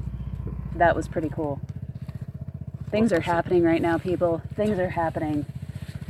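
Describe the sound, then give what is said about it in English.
Vespa scooter engines putter steadily in the background as neighbors set off on them, a low continuous rumble running the whole time beneath a person talking excitedly in the foreground. “Oh, if you can hear in the background, our neighbors are setting off with their Vespas.”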